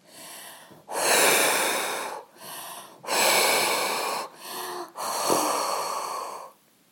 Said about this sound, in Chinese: 摘下蒲公英，用力的吹着。